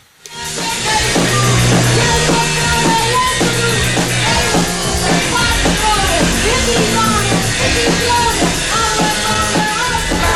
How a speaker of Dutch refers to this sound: Drie pionierende Nederlandse labels... met Nederlandse bands, met vaak ook Nederlandse teksten. En punk uit Nederland klonk zo'n beetje zo.